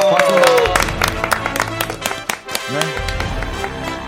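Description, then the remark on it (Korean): An audience at a song contest claps steadily for a few seconds for a voice actor with drawings on the body, a dense patter of many hands with some crowd noise and voices mixed in, loud throughout. “박수 한번 보내주시고요.”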